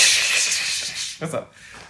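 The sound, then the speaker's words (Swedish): A voice imitates a cymbal with a steady hissing wash lasting about a second, followed by a brief voiced sound as it fades out, mimicking the live drums heard at a concert after the power went out. “Mycket cymbal.”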